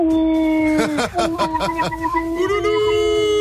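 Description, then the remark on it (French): A person imitates a wolf howl, a sustained wavering tone that rises and dips over a few seconds, broken by brief laugh-like pulses in the middle, fairly loud. “Elles étaient jolies et tout comme des loups, on était comme des Je suis un loup.”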